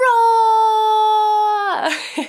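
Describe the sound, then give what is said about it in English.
Children give a loud, drawn-out lion roar, as loud as they can on a count of three, a high, steady, tonal cry that holds for over a second before breaking into a rough, breathy trail-off. “But I think you can roar even louder. Shall we give it a try? One, two, three. Roar!”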